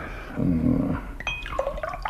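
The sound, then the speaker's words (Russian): Beer is poured into a glass for a guest, a low gurgling splash first, then a brighter fizzing, ringing trickle as the glass fills. No one speaks. “От пива я бы не отказался. Ага, сию минуту.”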